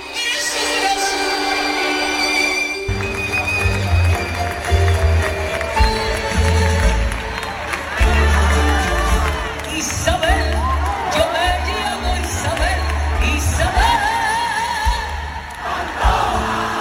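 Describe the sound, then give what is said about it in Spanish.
A huge stadium crowd roars and sings along at a singer's concert at the Estadio de la Cartuja in Seville, opening her tour celebrating 50 years on stage, a dense, loud wash of voices over steady thumping bass that kicks in after a few seconds and carries on throughout. “Bueno, pues este es el sonido del Estadio de la Cartuja anoche, eh, donde la tonadillera sevillana comenzó su gira para celebrar 50 años, 50 años en los, escenarios.”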